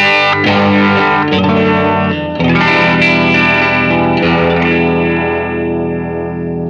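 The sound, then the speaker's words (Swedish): A heavily overdriven electric guitar, played through a Jäger Thermonuclear drive pedal on its rhythm setting with a slow sweeping modulation effect placed before the drive, plays sustained, dense distorted chords with a swirling, sweeping modulation, loud, with no talking over it. “Eh, då låter, vi kör då med eh, Jägers eh, Thermonuclear-pedalen yeah. på rytmläget.”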